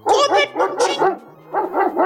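A dog at a house barks suddenly in a quick, loud burst of about seven sharp barks, pausing briefly partway through before a few more. No one speaks.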